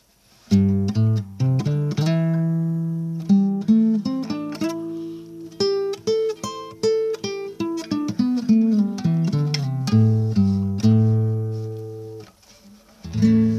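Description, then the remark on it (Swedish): A bright, bouncy instrumental intro to a children's song plays alone: a clear keyboard-like melody over steady bass notes, moving in short repeated phrases with no singing yet. “Och idag ska vi lyssna på låt nummer åtta,”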